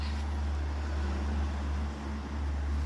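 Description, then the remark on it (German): A steady, loud low rumble like an idling truck engine drones for about three seconds with a faint tonal hum on top and a brief dip near the end, caused by a glitching internet connection in Norway; no one speaks. “Da warst du kurz weg. Dein Internet in Norwegen ist wieder flatterig.”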